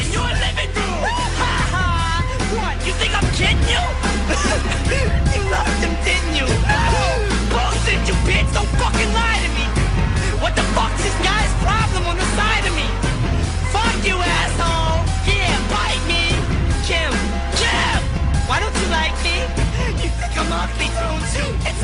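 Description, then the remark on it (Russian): A loud, dense rap track with heavy bass plays throughout, its vocals shouted and strained in an angry, yelling delivery over the steady beat; the song, from the rapper's third album, is dedicated to his ex-wife. “А, это третий альбом, если я не ошибаюсь, это третий альбом, и песня посвящена бывшей жене. А, э, там, собственно, именно орет.”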